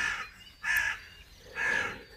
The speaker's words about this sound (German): Geräusche von sich zu geben, wie der Rabe gerade, oder still dahin zu segeln.